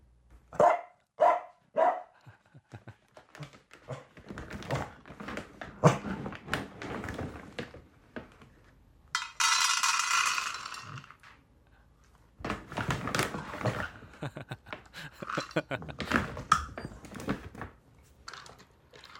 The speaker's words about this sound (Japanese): うちの飼い犬が朝ごはんを食べている様子ですとジングルに生まれ変わればと思い送信いたしますじゃあ聞いてみましょう